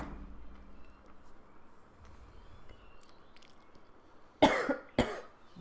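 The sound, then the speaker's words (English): Two sharp coughs in quick succession ring out loudly near the end, following several seconds of quiet background with no talking. “Bless you.”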